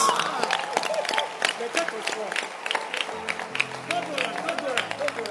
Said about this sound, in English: Can you clap your hands for perfumes? And deodorant. I said, clap your hands for deodorant. Imagine you without deodorant. Kai! I said, clap for deodorant.